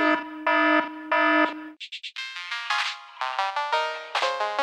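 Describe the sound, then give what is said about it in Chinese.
A loud electronic alarm blares in repeating pulsed tones, first steady low bursts, then a quick high beeping, then rising, warbling siren-like sweeps cycling rapidly, with no voices present. “好，这个警报声到底是怎么一回事？”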